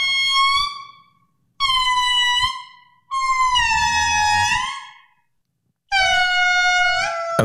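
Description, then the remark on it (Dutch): Primates recorded in Madagascar sing a duet in loud, wailing, horn-like calls: four long sustained bursts with pauses between, one passage where the voices overlap and slide in pitch, with no talking. “De eerste zanger in de geschiedenis was misschien wel geen mens, maar een aap. Luister maar naar dit duet, opgenomen eerder dit jaar op Madagaskar.”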